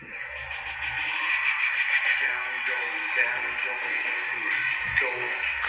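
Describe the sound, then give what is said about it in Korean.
A K-pop song plays at steady, fairly loud volume for a few seconds, with dense vocals and backing filling the mix and a thin, radio-like tone, with no one talking over it. “중간에 뭐가 자, 많아가지고 이 노래입니다.”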